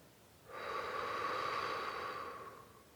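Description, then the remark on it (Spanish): A single slow, airy breath drawn in and let out through the mouth during a breathing exercise, with a steady hiss that fades out after a couple of seconds, no talking. “Vuélvelo a hacer una última vez poniendo atención en el sonido al inhalar y al exhalar por la boca.”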